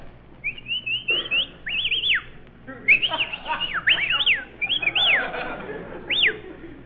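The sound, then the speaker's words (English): A run of sharp, shrill whistles to hail a cab, each swooping up and down, repeated several times in quick bursts, fairly loud over a low background hum. “Now we may as well whistle at each other.”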